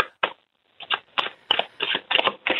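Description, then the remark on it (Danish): Tarot cards being shuffled in a series of quick, crisp riffling bursts, some short and some longer, with brief pauses between them and no talking. “Nå, kan man blande tarotkort på forskellig vis?”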